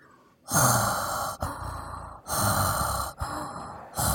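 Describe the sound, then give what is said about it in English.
A person imitates heavy, rasping breathing through a mask while walking around: four loud inhale-exhale cycles in a slow, steady rhythm, with no talking. “so now we're POV walking around, breathing in a mask.”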